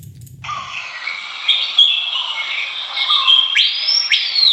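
Bright bird chirps and whistles ring out continuously in a segment jingle, with rising sweeping calls near the end, layered over a dense chorus-like wash; moderately loud, no speech.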